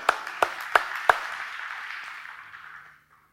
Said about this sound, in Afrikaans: Kan ons 'n hande klap kry?